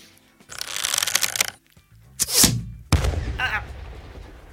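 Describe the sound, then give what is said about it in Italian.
A large firecracker, the last one being tried, goes off: a second of fizzing, crackling sputter, a short pause, then two sharp, loud bangs in quick succession, each trailing into a low rumble. “È una, è una bomba esplosiva.”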